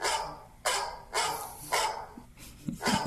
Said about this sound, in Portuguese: Cachorro! É, é, o alarme de sábado, tá? Você que nos acompanha de sábado, até para você saber que hoje é sábado, tem um cachorro que late sempre às 7h10, tá? Que é o meu alarme aqui